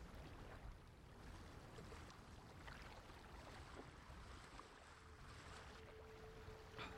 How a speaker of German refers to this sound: Äh, und es wird kurz auch die Essensglocke geläutet und damit beginnt ein neuer Tag auf See und ihr erwacht zum Schwappen der Wellen und Schaukeln des Schiffes.